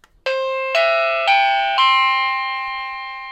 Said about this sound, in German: Und diesen Klingelton, den können wir natürlich x-beliebig wieder ändern.